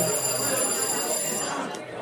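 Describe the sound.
A doorbell rings with a steady, high-pitched electronic buzz that holds unbroken for about two seconds, over a noisy background with faint murmuring voices.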